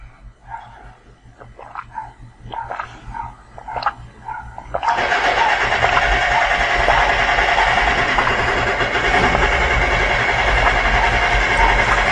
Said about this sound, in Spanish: Y también por el martillo mecánico.